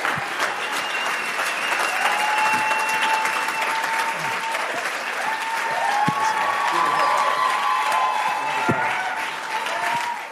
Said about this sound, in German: vielleicht können wir Ihnen einfach mal einen Applaus geben, ihn mal so richtig herzlich begrüßen